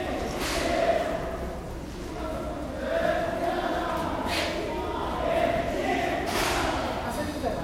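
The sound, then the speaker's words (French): A crowd of Tibetan Buddhist monks debating in the courtyard of the Dalai Lama's temple: many overlapping voices fill the air, punctuated every second or two by sharp, loud hand claps and shouted bursts. “où je crois qu'à cette heure-ci, les moines sont en train de débattre, euh, qui est une activité spécifique du bouddhisme tibétain.”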